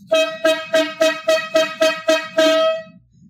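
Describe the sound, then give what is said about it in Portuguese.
A loud, brassy horn honks eight quick blasts in a steady rhythm, the final one held slightly longer before cutting off. No voices are heard. “agora a gente tem mais uma corneta aleatória.”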